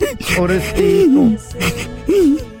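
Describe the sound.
A voice mimics a boy crying in a living room in Chihuahua, with loud wavering wails and sobbing breaths that rise and fall in a few uneven bursts, no real words spoken.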